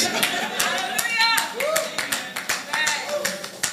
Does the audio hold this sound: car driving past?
no